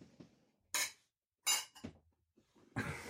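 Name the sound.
beer glasses clinking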